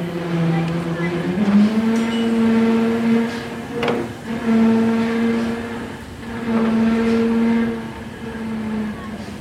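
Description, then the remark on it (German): A railway turntable carrying a steam locomotive turns with a steady, droning motor hum that rises slightly in pitch as it gets going after some trouble starting, broken by a few brief mechanical clunks and rattles. “Jetzt hat das Ding eine, einige Anlaufschwierigkeiten, aber es dreht sich.”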